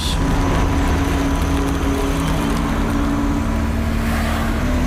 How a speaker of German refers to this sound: Zum Glück haben wir ja bald alle E-Autos, ne? Und Autoverkehr im Jahre 2030.